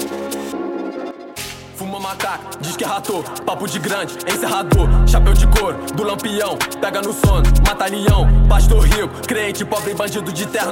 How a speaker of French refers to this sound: C'est parti pour un son très trap C'est le son du, c'est le son, c'est le son de l'époque.